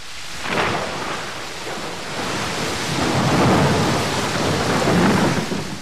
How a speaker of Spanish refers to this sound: Caería entonces un fuerte chaparrón acompañado por un violento bombardeo.